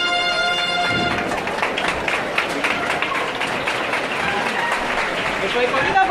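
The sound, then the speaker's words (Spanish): Sustained applause from a street crowd in San Jacinto for a procession float carried by costaleros, a dense, steady patter of many hands clapping at even loudness throughout, with voices mixed in and a brief tonal sound at the start. “Han quedado aplausos en San Jacinto.”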